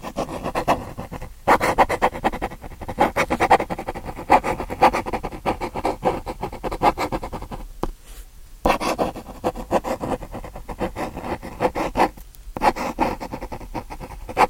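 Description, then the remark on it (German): A pen scratches steadily across paper in busy bursts of strokes broken by a few short pauses, with no voices. “Das könnte ein Stift sein.”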